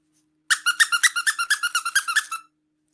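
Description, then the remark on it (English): A squeaky toy is squeezed rapidly about a dozen times in a quick, even rhythm, each bright harmonic squeak fairly loud, stopping after two seconds; no one speaks. “maybe LinkedIn's US stuff is managed by a bunch of squeaky toys”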